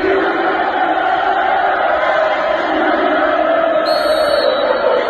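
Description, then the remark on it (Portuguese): A steady, dense roar of simulated Corinthians supporters' crowd noise played over loudspeakers in a stadium during a closed-doors match against Ituano, a continuous wash of many voices with no breaks, loud throughout, with a faint high whistle-like tone near the end. “Porém, para recriar o clima de jogo na ausência da torcida, os responsáveis deram aquele jeitinho e instalaram alto-falantes e telões no estádio para simular a presença da Fiel.”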